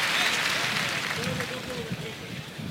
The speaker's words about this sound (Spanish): Ahí saluda la ovación los dos banderilleros del público de la maestranza de Sevilla.